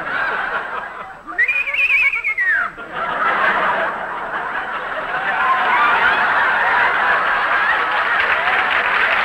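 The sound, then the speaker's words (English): A voice lets out a rising and falling squeal, imitating a pig, for about a second. A steady wash of audience laughter and clapping follows and carries on to the end. “It has an imitation of a pig.”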